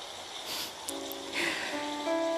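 A rain and passing-vehicle sound effect: steady rain hisses throughout, with a vehicle seeming to swish past midway and a low, sustained hum underneath. The sound is moderate in level, with no voices.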